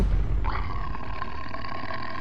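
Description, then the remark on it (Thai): A large tiger roars in one long, deep, rumbling growl that stays loud for a couple of seconds, with no voices or other sounds around it. “เขาก็แลเห็นหางของสัตว์แกว่งไปแกว่งมาตรงปุ่มหิน มันเป็นหางของเสือนั่นเอง”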